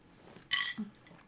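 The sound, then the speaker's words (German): A single bright clink of glasses touching together in a toast, sharp and ringing briefly before fading, in an otherwise quiet moment. “Ja, Prost.”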